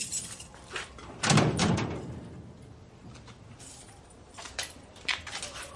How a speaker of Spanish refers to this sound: De noche, Amede cierra la puerta y comprueba que esté bien cerrada.